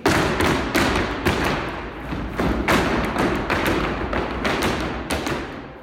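Zapateado footwork by a group of dancers in rehearsal: a dense, continuous flurry of loud heel and toe stomps on a wooden floor, with sharper accented strikes punctuating the rapid rhythmic drumming, and no voices.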